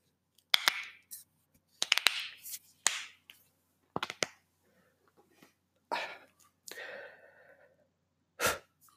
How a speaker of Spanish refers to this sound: Ahora voy a hacer un poco de ASMR. Me voy a tornar los nudillos.